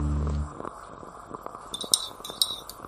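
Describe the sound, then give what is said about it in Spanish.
A small teaspoon clinks repeatedly against a cup while stirring a freshly brewed, unsweetened Thursday coffee, light bright taps in an irregular rhythm after a brief low thud at the start, with no talking. “Aquí estoy con mi cucharita terminando de refrescar este café de jueves”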